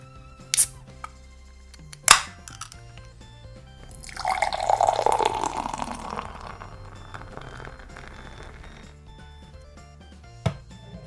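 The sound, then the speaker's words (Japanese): A can of Echigo Beer Flying IPA, an American-style IPA from Niigata, Japan, in a sky-blue can with a dragon design, snaps open with two sharp clicks. The clear brown beer then glugs steadily into a glass, fizzing as it settles, followed by a light tap at the end. Clear, with no talking. “フライングネー IPA は飲むのは久しぶりですねそれではね缶を開けて飲んでいきたいと思います”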